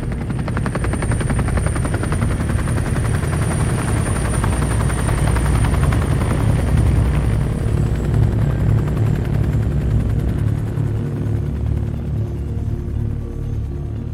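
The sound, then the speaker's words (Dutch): A helicopter carrying a single pilot flies in around 6 or 7 in the morning, in thin air, to pick up one casualty, its rotor blades producing a steady, heavy chopping thump with a constant engine whine on top, loud and sustained throughout with no voices. “tegen 6 uur of 7 uur s morgens is pas eh, een heli die kant opgekomen.”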